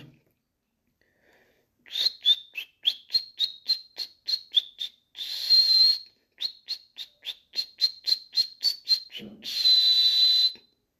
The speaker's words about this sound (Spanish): El jilguero comenzó a cantar.